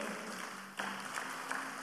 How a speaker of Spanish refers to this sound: Porque Jesús lo venció en la cruz del Calvario. Dele ese aplauso a Jesús y se lo va a dar, por favor.